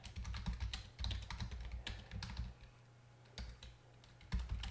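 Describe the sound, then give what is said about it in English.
Rapid clicking of keys on a computer keyboard, typed in quick irregular bursts with brief pauses, fairly clear against a low steady background hum. “Um, well, you should be able to just go to um, in the app, look up Podcast Idiot in your app, I'm just typing this out as I talk.”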